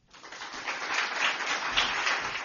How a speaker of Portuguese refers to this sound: Alguns dos aplausos do espetáculo repetiram-se na inauguração da exposição do Tufit.